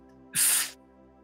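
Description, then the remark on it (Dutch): A single forceful breath blown out through the mouth during a breathing exercise, a short, loud, airy whoosh lasting under half a second, with quiet before and after. “Blaas door de mond.”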